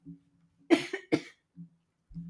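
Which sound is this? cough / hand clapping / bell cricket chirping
cough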